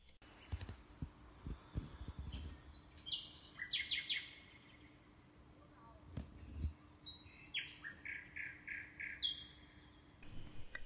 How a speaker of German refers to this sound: Das war eine Nachtigall, die vor wenigen Tagen zurück in die gotsche wildnis gekehrt ist. Die kleinen Vögel, die nur 16 cm groß bzw. klein werden, überwintern in Afrika und kommen im Frühjahr zu uns zurück.